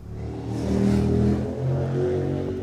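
A car engine revs and accelerates on the busy main street of Pajaro on a hot, dry summer day, its low hum rising in pitch and loudness, then easing before climbing again, with no voices present.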